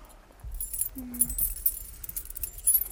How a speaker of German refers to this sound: Ja, so, also ich habe meinen mein äh, Schlüsselanhänger. Moment, ich habe nämlich auch einen. Da könnt ihr mal sehen, was ich da dran habe. Sehr viele Schlüssel.